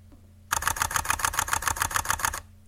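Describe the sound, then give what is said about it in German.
A rapid burst of camera shutter clicks fires in high-speed continuous mode, about a dozen sharp, evenly spaced mechanical snaps over two seconds, then stops abruptly. “Das ist die Serienaufnahme im High-Speed-Modus.”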